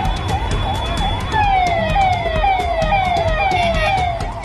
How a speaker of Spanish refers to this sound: De inmediato suenan sirenas.